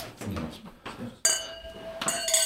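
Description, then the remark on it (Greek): Wine glasses clink together in a toast: a sharp ringing strike that hangs with a bright tone, followed by a second quicker round of clinks, with soft murmuring voices underneath. “Στην υγειά σας.”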